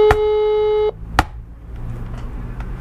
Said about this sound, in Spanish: Bueno, entonces tenemos dos, con dos golpes en la mesa.